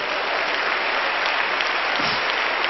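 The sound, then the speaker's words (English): A crowd at a sermon claps their hands for the Lord in a loud, dense, continuous wash of applause with no pauses, the individual claps blending into a steady roar for the whole few seconds. “Let's all clap our hands for the Lord.”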